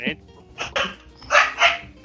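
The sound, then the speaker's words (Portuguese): A female dog barks several times in quick, uneven bursts, fairly loud, with short pauses between the barks and faint background noise underneath. “Peraí que a cachorra tá louca aqui.”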